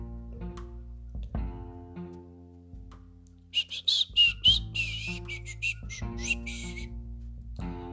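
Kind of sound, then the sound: human body sound, high-pitched human whistling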